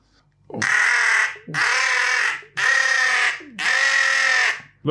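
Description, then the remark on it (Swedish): Four loud, harsh imitated jackdaw calls in an even rhythm, each a raspy, drawn-out caw of nearly a second with short gaps between, alone with no talking. “Om man skulle göra ehm, eh, kajernas ljud, yeah.”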